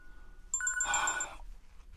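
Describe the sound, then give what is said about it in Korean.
A phone rings at 8:11 in the evening with a brief burst of bright, warbling electronic tones that pulse rapidly for under a second, clear, with no voices. “누가 이 시간에 전화질이야?”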